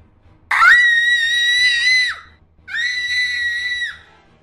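A woman screams twice from upstairs: two long, piercing, high-pitched cries, the first about a second and a half and the second slightly shorter, loud and alone over a faint low hum.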